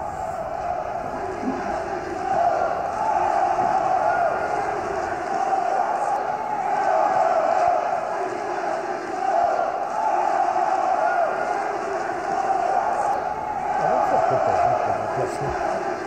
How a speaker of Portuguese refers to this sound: Aí o pessoal lá do Flamengo gritando um a um, segunda divisão. Isso é clássico, gente.